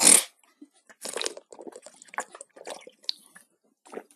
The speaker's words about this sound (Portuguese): Enfim, vamos tomar água aqui de novo.